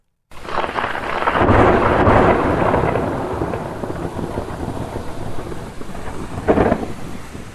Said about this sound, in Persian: با صدای رعد مسافر بیدار میشود.